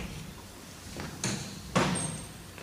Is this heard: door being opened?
yes